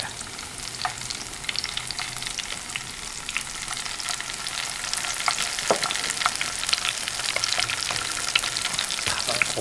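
Scallion oil frying in a pan, the scallions cooked until nearly scorched to draw their aroma and sweetness into the oil, a steady dense crackle and sizzle with scattered sharp pops, fairly loud, growing slightly more intense toward the end with no voices.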